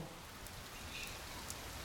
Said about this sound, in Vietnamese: Nhưng mà ở chỗ Kim Tuyền sống thì trời đang mưa rất là lớn, coi bộ tình hình này sẽ kéo dài đến nhiều ngày.